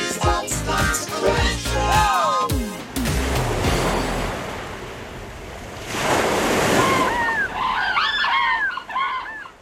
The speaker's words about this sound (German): Also ich kann an dieser Stelle schon mal verraten, von mir kommen diese wunderbaren Meeresgeräusche Leider nicht.